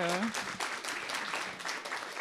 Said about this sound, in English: Can everybody give him a, another round of applause? Thank you.